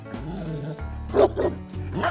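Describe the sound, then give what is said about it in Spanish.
A German shepherd dog barks in a few quick, irregular bursts, the barks fairly loud over a low steady background hum. “Todos excepto uno, un perro pastor alemán.”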